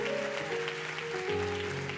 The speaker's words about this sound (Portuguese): Ou oh, quem pode já aplaudir profeticamente a tua vitória? Em nome de Jesus Cristo.